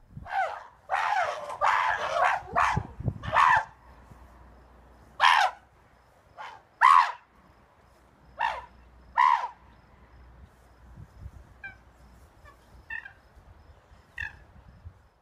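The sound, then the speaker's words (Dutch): A group of monkeys in their enclosure in Washington state, USA, scream harsh, loud alarm calls after suddenly discovering a snake: a rapid burst at first, then separate shrieks every second or so, with fainter, higher calls trailing off at the end. “laten we even luisteren hoe het klinkt als een groep apen in hun verblijf, en dit is in de Amerikaanse staat Washington, ineens een slang ontdekken.”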